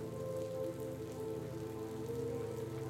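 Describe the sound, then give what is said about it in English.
Steady rain falls throughout, a constant hiss of drops on a surface, with a low droning hum running underneath and no one speaking. “You put your headphones back on and take another deep breath, wiping the rain off your forehead.”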